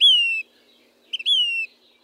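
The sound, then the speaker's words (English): A Say's Phoebe, a small brown flycatcher with an orange belly, calls twice, each a clear, plaintive whistle sliding gently downward, with two quick soft notes just before the second call. No voices, and quiet between calls. “The Say's Phoebe's voice echoes off the rocks of almost any dry canyon west of the Rockies.”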